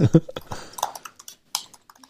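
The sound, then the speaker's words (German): Quick, clattery keystrokes from a MacBook's butterfly keyboard tap out in an uneven burst as the keys are hammered, with a faint murmur of voice at the start. “Ja, du hast dieses MacBook mit dieser Butterfly-Tastatur, ne?”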